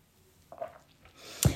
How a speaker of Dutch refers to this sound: Nog even slokje.